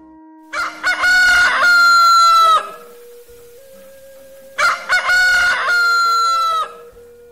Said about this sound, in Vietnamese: Khi năm mới đến và thời khắc tiếng gà gáy đầu tiên vang lên trong bản thì người Lô Lô sẽ đánh thức toàn bộ gia súc trong nhà để đón năm mới cùng gia đình.